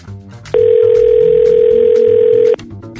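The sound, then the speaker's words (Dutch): A telephone ringing tone as a call is placed to Dutch spin doctor Jack de Vries: one steady, loud electronic beep held for about two seconds, sitting over quieter background murmur that continues before and after it. “dan ga ik bellen met het orakel van vandaag.”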